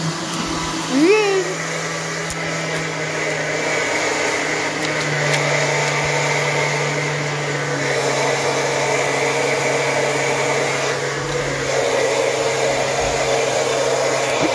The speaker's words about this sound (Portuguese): no liquidificador, galerinha.